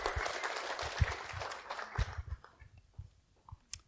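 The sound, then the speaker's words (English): A brief round of applause from a church audience welcoming a woman invited up to share and pray: dense crackling clapping that thins out and fades over a few seconds, with a few scattered last claps and some low thumps. “Let's give her a little round of applause.”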